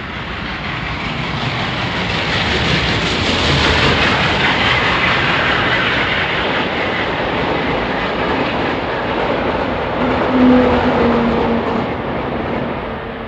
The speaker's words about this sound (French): Le train, oui, le train, je suis parti vers le Rajasthan avec ce train, ces rails, ces rails, ces, ces, locomotives qui avancent petit à petit, rapidement.